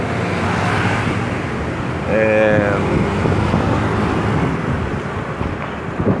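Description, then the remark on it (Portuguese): Busy street traffic with many cars in Fortaleza rumbles and hisses continuously, a dense steady wash of road noise, while a person briefly speaks over it. “E é isso, muitos carros, paradas, uma tentativa bem sucedida, será?”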